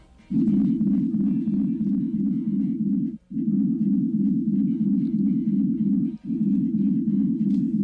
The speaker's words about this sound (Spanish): Y hace muy pocos años, hace unos tres años, empezó a recoger un sonido extraño, un zumbido que surgía del mar, cerca a nuestras costas. Un sonido que todavía no tiene explicación y que sonaba así.